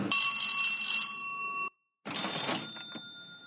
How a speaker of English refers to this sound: Was the cash register sound a little cheesy? Doesn't matter, right?